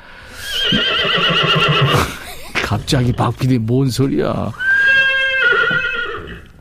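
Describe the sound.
A horse neighs loudly with a shrill, wavering whinny. A person briefly speaks, then another high, drawn-out neigh rings out.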